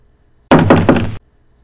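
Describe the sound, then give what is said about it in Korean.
Three quick, loud knocks on a wooden plank door, evenly spaced, with a hollow resonant ring between them and silence on either side. Travelling officials knock on the door of a hermitage in a dense forest. “관리 일행이 판자로 된 문을 두드리자 한참 후에 힘겨운 걸음걸이의 노부인이 나와서 문을 열어주었습니다.”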